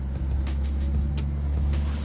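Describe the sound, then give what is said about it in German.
Steady road traffic rumbles, a continuous low engine drone with faint hissing swells as cars keep driving past a street-side stair step, no voices present. “Okay, ich Wir sitzen hier übrigens auf einer komischen Treppenstufe und hier fahren die ganze Zeit Autos vorbei.”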